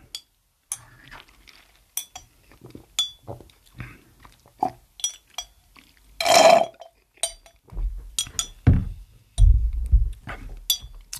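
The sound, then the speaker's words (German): Quiet sounds of someone finishing a drink from a glass: scattered light clinks and taps, one brighter ring of glass midway, then a few soft gulps and swallows. Nobody speaks. “Aber vorher trinken wir noch ganz kurz unser Getränk hier aus.”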